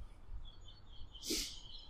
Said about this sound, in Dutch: Ik hoor zelf helemaal de vogeltjes. Ik heb een microfoontje meegenomen, want ik dacht, ja, anders is er helemaal, is er helemaal niks meer van mij te horen.